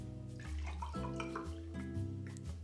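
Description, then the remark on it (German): Guava juice pouring steadily into a glass that already holds an ice cube, a continuous gurgling stream whose tone shifts upward in steps as the glass fills. No one speaks. “Moment, das muss ich jetzt noch einmal dekantieren.”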